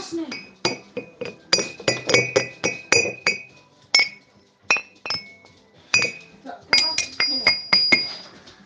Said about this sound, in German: Das war Industrial. Also alles, was nach äh, Küchengeräte oder metallische Gegenstände klingt und äh, irgendwie ein bisschen punkig und rockig abgeht.